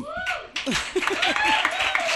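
Audience applause for a band's singer on the show El Hombre Luna, a dense, steady patter of many hands clapping, with high whoops and sliding cheers rising over it, loud throughout.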